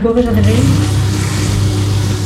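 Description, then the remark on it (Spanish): A paper shredding machine runs loudly and steadily, shredding papers, a low droning hum layered with harsh, hissy noise, its pitch shifting briefly at the start before settling into an even whir. “dale un momento ahí a la máquina”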